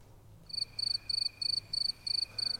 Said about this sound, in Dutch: Kan je hier krekels in monteren?